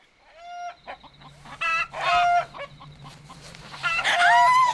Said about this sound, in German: Das ist nur mein Huhn